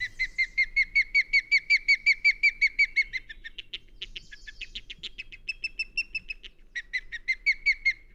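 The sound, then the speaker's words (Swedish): A bird of prey gives a thin, weak whistling call: a rapid, rhythmic series of high piping notes, briefly broken into varied chatter before the steady run resumes. No talking. “Den har ju det här lite lätet som underst stryker den inte så jättedominanta karaktären. Så det är lite vek vissling sådär.”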